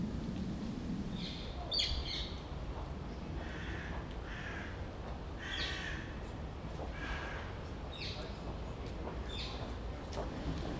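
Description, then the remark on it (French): Several birds chirp and trill in repeated short bursts over steady outdoor background noise, their calls moderately loud, with no one speaking. “Je vous l'avais dit qu'Apollinaire c'était les oiseaux.”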